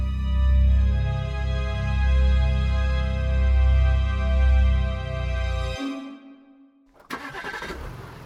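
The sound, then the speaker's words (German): A car engine runs loud with a steady rumble for several seconds, then cuts off, leaving a faint hum before a sudden burst of mechanical noise, as a company CEO drives to a coal mine site after an explosion. No one speaks. “der CEO der Rheinkohle KG, nach einem Anruf zu seinem Auto und kommt um 18.12 Uhr auf dem Gelände der Mine an.”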